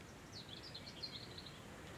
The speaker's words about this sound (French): J'entends des oiseaux. Oui, et le vent.